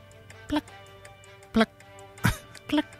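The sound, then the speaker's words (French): A dripping faucet lets four distinct drops fall at an uneven pace, each a short, clear plink with a ringing, watery tone, against a quiet background. “un robinet qui coule.”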